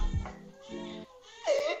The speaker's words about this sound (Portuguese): O bebê tá chorando, velho. Eu tava zoando, o bebê tá chorando agora. Meu Deus. Alguém para esse bebê de chorar, Jesus.